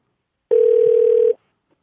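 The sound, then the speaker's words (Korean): A single steady electronic ringback tone from an outgoing phone call placed to a participant, clear and fairly loud, lasting under a second before cutting off into silence. Nobody speaks. “전화 한번 걸어주세요.”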